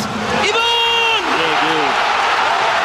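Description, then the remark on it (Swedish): A stadium crowd of football supporters roars loudly and steadily after Kennedy Bakircioglu scores with a long-range shot, a dense wall of cheering that never lets up, with a single voice letting out a long sustained shout early on. “Då laddar klacken på rejält när Kennedy Bakircioglu ska få skjuta från den här distansen.”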